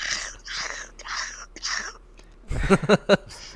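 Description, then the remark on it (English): Four breathy, crackly bursts in a steady rhythm, a voice mimicking the crunch of biting into a water chestnut, followed by a short burst of voiced talk or laughter. “Is that I, um, accurate representation of what they sound yes. like? A little bit of ASMR for for you.”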